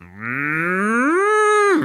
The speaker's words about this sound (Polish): To się, to się kurde wytnie. Nie, nie wiem. To Raczej... się wytnie i się wstawi krowę.